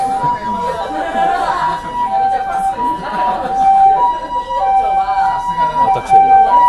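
An ambulance siren wails in a steady two-tone, high-low pattern, fairly loud and growing slightly louder, while people chatter in the background.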